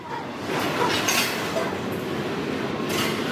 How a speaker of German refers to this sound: Der Güterzug der Angst und der Hoffnung von Migranten. Der Güterzug, der sie vom Süden Mexikos bis in den Norden bringen soll. Im Moment nähert sich der Zug einer Migrantenherberge. Die Männer wollen abspringen.